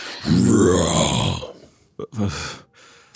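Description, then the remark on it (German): A person lets out a loud, strained, screeching cry lasting over a second, imitating a squirrel's scream, followed by a couple of shorter rasping vocal bursts. “ruft das Eichhörnchen hat die Hände an den Gittern und, und schreit Richtung Gipfel.”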